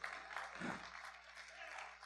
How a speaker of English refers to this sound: Well, oh, clap your hands to him, would you?